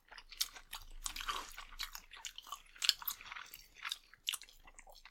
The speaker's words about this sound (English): I was gonna say if you want to keep chewing while I'm chewing. no no I got I still got uh, got some on the bone that I can get off.